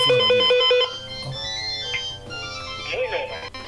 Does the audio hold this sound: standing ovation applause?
no